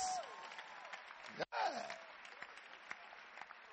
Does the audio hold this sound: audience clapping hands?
yes